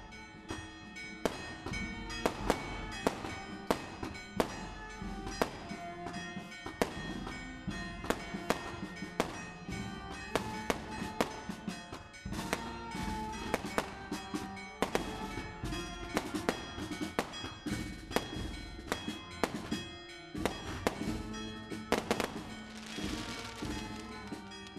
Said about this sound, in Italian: i fuochi d'artificio, no? questa storia dei fuochi d'artificio